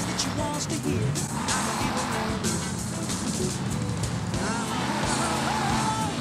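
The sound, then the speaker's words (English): A video game car roars steadily as the player floors the gas to pass through traffic, its engine loud and continuous with brief tire squeals and passing-car whooshes, while a voice talks over the din. “Step on that gas pedal. Pass these people.”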